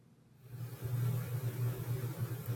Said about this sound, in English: You may hear a little bit of rumbling in the background simply because uh, I'm in close proximity to a couple servers on my desk, so that's not a failure.